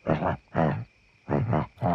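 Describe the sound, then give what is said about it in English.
A voice imitates ape chattering for puppet apes chatting in a cage in a garden, with loud, guttural bursts of ooh-ooh sounds in a quick back-and-forth rhythm, separated by a brief pause, with no ordinary speech. “And if you're worried that this scene might be a bit difficult to follow, um, you know, if you don't speak Supermarionation uh, ape primate monkey talk, then don't worry.”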